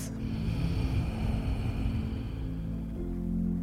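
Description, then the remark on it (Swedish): A slow, deep breath out taken during a guided breathing exercise, a steady breathy rush of air lasting a few seconds with a low rumbling undertone and no talking. “Och ut.”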